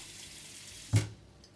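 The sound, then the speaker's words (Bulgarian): Steady hiss of tap water running, then a single short, louder splash as a slice of bread is dipped into the water to soak, followed by quieter trickling. “Накисвам една филийка хляб във вода”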